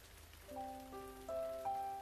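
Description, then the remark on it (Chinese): A soft, steady hiss of light rain falls at night outside a window high above a city's lights, while sustained musical notes enter one after another and layer into a gentle chord above it. “你住在离地面很远的地方，俯瞰着这一整座灯火阑珊，在雨幕里逐渐变得模糊。”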